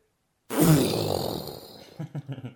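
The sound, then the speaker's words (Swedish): A voice mimics a loud explosion heard from a hotel room in Turkey in 2004, with a sudden, rumbling burst that sustains noisily for about a second, then breaks into a few short, choppy puffs as it fades. “Och det, det var en explosion alltså. En kanon, en explosion.”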